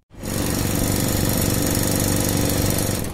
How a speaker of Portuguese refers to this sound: Parece um martelo pneumático, mas este não é o som de obras na rua. É o ruído do motor de um aspirador de meio numa câmara de fluxo, numa sala de cultura de células do Instituto de Medicina Molecular, em Lisboa.